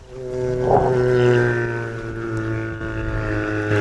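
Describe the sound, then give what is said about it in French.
A migrating male humpback whale's song, recorded with a hydrophone about ten metres underwater off Guadeloupe in late March from a Zodiac with its engine stopped in heavy swell: a long, droning moan rich in harmonics, with a brief rising cry near the start, steady and fairly loud against a murky background, no voices. “vous aurez peut-être reconnu la fameuse baleine à bosse. C'est un champ de mâle en pleine migration.”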